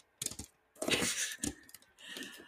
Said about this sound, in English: okay. So, so unwrap it near the mic. So the ASMR.